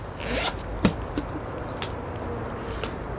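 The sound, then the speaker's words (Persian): Belongings rustle as they are gathered up, with a few short zipping strokes and soft clicks, fairly quiet against a steady background hiss. “وسایلشان را جمع کردند و به این موضوع فکر می کنند که حال مایل به انجام چه کاری هستند”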